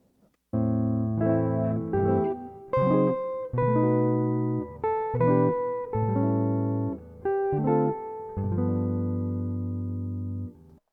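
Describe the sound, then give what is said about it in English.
A short instrumental phrase of sustained, organ-like chords, the last phrase of a song's first verse, shifts harmony over about ten seconds through three keys: a measure of A minor, then F sharp minor seventh to B7 (ii–V in E minor), then E minor 7 to A7 (ii–V in D), played clearly and alone with no voices. “This last phrase is most interesting in that harmonically it moves through three keys.”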